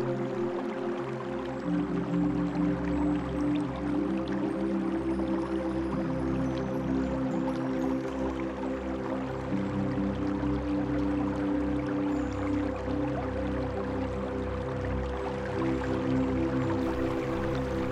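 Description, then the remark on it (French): A stream flows steadily and continuously, its soft babbling and trickling wash holding an even level throughout, with a low sustained hum or drone beneath it and no voices. “Imaginez les rayons du soleil se reflétant sur ce ruisseau que vous entendez.”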